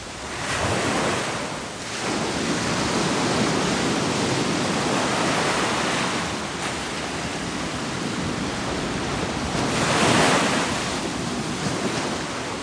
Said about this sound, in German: Die Wellen rollen heran und sie entfernen sich wieder. Sie kommen und gehen. Sie kommen und gehen.